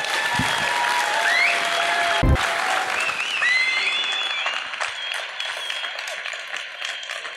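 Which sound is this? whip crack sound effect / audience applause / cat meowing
audience applause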